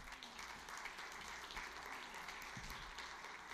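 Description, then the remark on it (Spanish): Sustained applause from an audience during a sermon, applauding God. A dense, even wash of clapping that stays steady and fairly loud for the whole few seconds, with no one speaking over it. “Oh, dele el aplauso a Dios, él se lo merece.”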